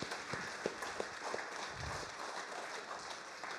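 An audience claps together in a steady, dense patter that fills the whole stretch, moderately distant and fairly soft, with no voices standing out.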